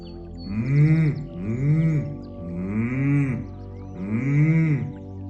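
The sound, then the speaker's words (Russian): Four sustained closed-mouth hums from one voice, each sliding up and back down in pitch, repeated at a steady pace, fairly loud with no talking, done as a voice exercise to feel vibration. “И мы мычим.”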